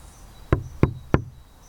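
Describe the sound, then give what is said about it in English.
Three firm knocks on the door of a wooden house, evenly spaced about a third of a second apart, clear against a faint background hum with no voices. “He walked to the house and knocked one, two, three times”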